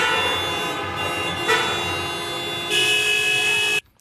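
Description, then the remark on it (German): A loud, sustained chorus of many car horns blaring together at once in the Westviertel of Essen, a traditional honking concert opening a radio traffic-reporting day, overlapping tones swelling near the end before cutting off abruptly. “Traditionelle Hutkonzert, der Beginn eines jeden Verkehrsmeldertages.”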